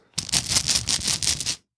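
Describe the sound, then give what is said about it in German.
Dice rattle briskly in a cup or hand for about a second and a half, a dense, continuous clatter of small hard clicks, with no talking. “natürlich Würfel. Würfel gehen immer, ne?”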